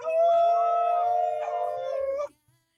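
A loud, sustained wolf howl holds a steady, slightly wavering pitch for about two seconds, then cuts off abruptly into near silence. No one speaks.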